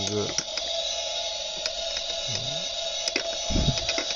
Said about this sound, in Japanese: そんな連続でドライヤーしなくていいよ。ずっと乾くから。乾くから。